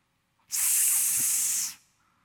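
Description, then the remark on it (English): A single steady hiss, a voice imitating a snake, sustained for just over a second with a sharp start and a quick fade, loud with no other sounds around it. “a hissing sound to represent a snake.”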